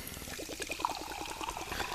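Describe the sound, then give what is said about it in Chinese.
Sparkling water pours from a plastic PET bottle in a quick, steady run of gurgling glugs, with a bright fizzy hiss over the top. The sound is moderately loud, and no one speaks. “好啦，不管这气泡水有没有顺利的打开呢，我们今天还是要用气泡水来嘎打给来干几杯哟，干几杯哟。”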